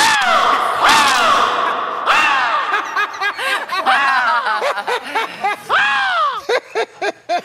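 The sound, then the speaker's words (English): A person loudly imitates a raven, producing a string of harsh, arching caws that quicken into short, choppy bursts toward the end. “you give us your uh, give us your raven?”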